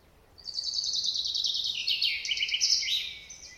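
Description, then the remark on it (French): A chaffinch sings its courtship song in a forest, one bright, rapid phrase of about three seconds, a descending run of trilled notes ending in a short flourish, heard clearly on its own with no voices. “Par exemple, quand le pinson est amoureux, il chante cet air-là.”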